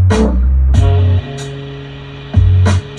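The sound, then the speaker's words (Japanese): A saxophone sample, edited for a rap track with a filter lifting the low range plus reverb, plays low, booming notes in short phrases, the sound smeared and hazy with a lingering wash behind it, alone and fairly loud. “で、2回目になるやつが、エフェクトかけた音。結局さっきのフィルターとリバーブね。”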